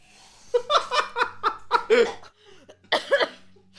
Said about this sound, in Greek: να πούμε ότι εγώ σε αυτή τη φάση έπινα νερό και πέθανα λίγο. Και κάπου εδώ θα κόψουμε για να μην με ακούτε να βήγω στα αυτιά σα